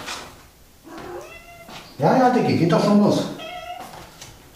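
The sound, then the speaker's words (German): A cat named Blackie meows loudly and insistently, several drawn-out, rising-and-falling cries in a row, with a person talking calmly over and between them. “Blackie schreit auch.”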